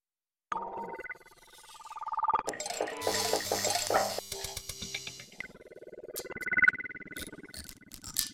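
Shards of a yellow glass lantern clink and tinkle together in a bright cluster of overlapping chimes, with lingering ringing tones and a brief swell near the end; no one speaks.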